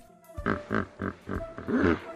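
A hippopotamus grunts five times in a steady rhythm, each grunt a short, deep, snorting burst, fairly loud, with the last one longer and more drawn out.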